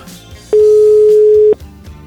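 A telephone line tone sounds once while a call to an old friend is being placed, a steady, mid-pitched electronic beep lasting about a second. It is loud and plain against a faint, murmuring background, with no talking.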